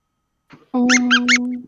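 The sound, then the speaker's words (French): A squeaky dog toy, used as a game buzzer, is squeezed, giving a loud, sustained rubbery squeal with three sharp high-pitched chirps in quick succession, preceded by a brief soft rustle. “Moi, j'ai un jouet pour chien. Est-ce que tu peux le faire le, tu peux le faire couiner pour voir”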